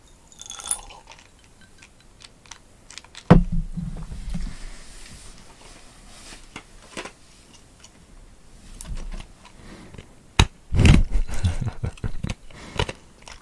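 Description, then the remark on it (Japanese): Crisp crunching of ice being chewed: a few loud crunches stand out, with scattered small clicks and cracks in between, and no one talking. “氷の咀嚼音。”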